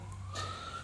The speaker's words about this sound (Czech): No, já se omlouvám, to je sanitka.